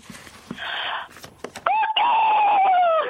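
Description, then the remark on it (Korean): A person imitates a rooster crowing as it sees a hen, as a closing bit: a raspy, breathy wind-up, then one long strained tonal cry that holds and slowly falls. It is loud, with no other talk. “마지막 그 암탉을 보는 수탁으로 음. 마무리하면 어떨까요?”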